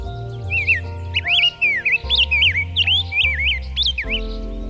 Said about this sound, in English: It was a rose breasted grosbeak.